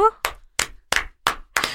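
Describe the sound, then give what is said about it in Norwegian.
A short burst of hand claps, five sharp, evenly spaced claps, with a brief voiced sound just before the first. “Eller forresten, ikke klapp.”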